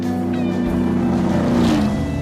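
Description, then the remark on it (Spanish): A Chevrolet Impala engine roars in a steady, deep, throaty drone in the background as people drive along in the car, loud, with no talking and no break in the rumble. “Tengo que pediros disculpas por el ruido que se oye de fondo, pero es que están en su coche, están conduciendo. Están conduciendo concretamente su impala, y seguro que a más de uno os suena ese rugido que se oye de fondo”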